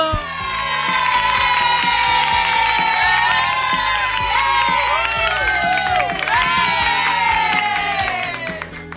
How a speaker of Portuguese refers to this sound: Sejam bem-vindos novamente, gente. Palmas para o nosso convidado.